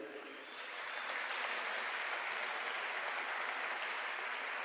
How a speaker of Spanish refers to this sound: Nos sentimos contentos y agradecidos con todos sus líderes. Fuerte aplauso para todos sus líderes.